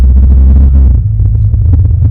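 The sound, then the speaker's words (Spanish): Loud, steady low rumble of road traffic as cars come past from the other side of the road, with a deep engine drone throughout and no voices. “el otro lado venían unos carros, pero ya parece que se”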